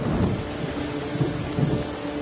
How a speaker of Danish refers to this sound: Det regner alt, alt for meget, og jeg er begyndt at blive lidt våd og kold igen.